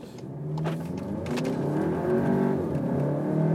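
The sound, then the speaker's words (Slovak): A blue Volkswagen Arteon R Shooting Brake with a 2.0 engine accelerates hard, its engine note climbing steadily in pitch and loudness over a few seconds, heard from inside the car with a strong low rumble. “Že sa nerozbehlo, hej? E, rozbehlo sa, ale nie s takýmto odhodlaním.”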